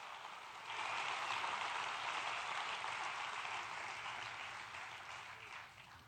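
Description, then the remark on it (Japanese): A crowd breaks into sustained applause in praise of the Lord, a dense wash of many hands clapping that swells quickly after a brief quiet start and holds steady, fading only slightly toward the end. “拍手をしましょう。”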